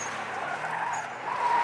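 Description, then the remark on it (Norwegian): Tires squeal in a sustained, steady skid as cars drift and spin in a big circle on a lot between two large warehouses, sliding sideways at high speed, the screech holding a high whine throughout and swelling slightly louder toward the end, with engine noise beneath. “De spinner rundt, i sladder, de drar piruetter.”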